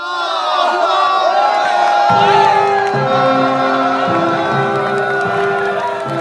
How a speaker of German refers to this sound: Die Menschen jubeln und begleiten die Soldaten zum Bahnhof. Sie singen, schenken ihnen Blumen.